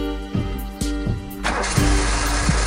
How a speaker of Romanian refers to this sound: Mașina pornește. Mă uit lung după ea. E neagră